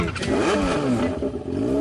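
A motorcycle engine revs loudly, its pitch climbing and dipping in quick surges over about two seconds, with no voices.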